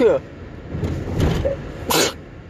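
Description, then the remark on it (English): A loud sneeze bursts out near the end, preceded by a softer breathy catch of air, over a low steady background hum. “Oh, I gotta sneeze.”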